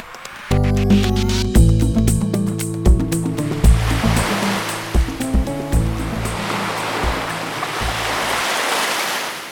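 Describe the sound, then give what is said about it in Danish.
Steady rushing surf from waves breaking on the shore of a small island in the Caribbean, a broad washing roar that builds and holds, with a stepping tonal melody playing over it for the first several seconds before fading out. “Jeg står i dag på en lille ø i Karibien for at finde ud af, hvad en orkan egentlig er for noget”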